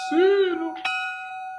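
A bell is struck once and rings out with a clear, sustained metallic tone that fades slowly. A brief drawn-out vocal sound comes just before the strike.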